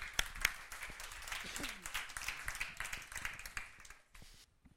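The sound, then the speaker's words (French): A church audience in Strasbourg applauds the worship band with dense, steady clapping that holds strong for about four seconds, then thins out and fades as the last few claps trail off into quiet. “Je propose qu'on puisse euh, remercier le groupe de louanges, les applaudir et les remercier.”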